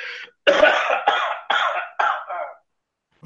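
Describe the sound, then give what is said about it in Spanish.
A bout of about five harsh coughs in quick, fairly regular succession from a person with a bad flu, sounding somewhat distant and muffled, heard from outside the house, with no talking over them. “Hasta acá podemos escuchar como tose a la lejanía.”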